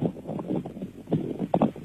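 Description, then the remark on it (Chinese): Steady, rumbling wind-like noise from an electric fan buffets a caller's narrow, muffled phone line. It swells and dips in uneven gusts for the whole stretch, with no voices over it. “因为我听着风一直很大，呼呼的，我听不清啊。”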